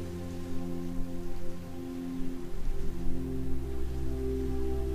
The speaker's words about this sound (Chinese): 伴随着沉静而持续的海浪声。